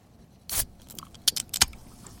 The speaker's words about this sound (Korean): 예, 맥주 캔, 치, 따는 소리예요 한 번 더요. 이렇게 따라야 되겠죠. 자, 이 맥주 캔, 캔 따는 소리가 일부에 나가는 노래 중간에 나올 겁니다.